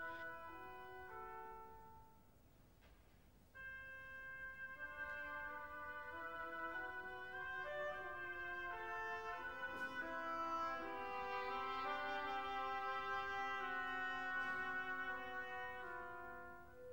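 An oboe plays the first main melody in the seventh variation, a sustained, singing line of held notes, accompanied by soft orchestral harmony underneath, at a steady moderate volume with no voices present.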